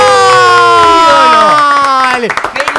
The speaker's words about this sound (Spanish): ¡Bravo! ¡Aplauso radial!